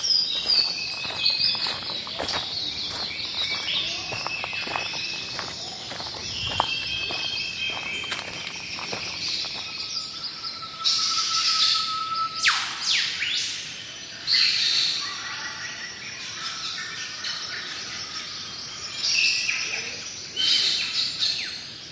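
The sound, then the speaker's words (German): A dense chorus of birds sings and chirps continuously before sunrise by a lake, with several bright overlapping calls and trills, over a steady insect-like hiss and faint outdoor ambience, no voices present. “Die Vögel singen vor Sonnenaufgang am intensivsten und der See ist am schönsten, wenn noch keine Menschenseele dort ist.”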